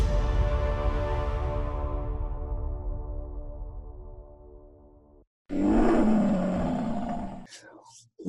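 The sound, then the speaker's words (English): A deep, loud lion roar rumbles for several seconds and slowly fades, then a second harsh roar bursts in after a brief silence before cutting off abruptly. “Watch out. Here comes that roar.”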